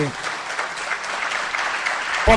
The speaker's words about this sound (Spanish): La verdad que quería que, que lo saluden todos. Me encantaría que lo saluden con un aplauso.